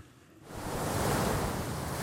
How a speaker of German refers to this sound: Sunset Beach auf der Insel Oahu, etwa eine Stunde entfernt von Hawaiis Hauptstadt Honolulu. Die Wellen krachen hier mit riesiger Wucht auf den Strand.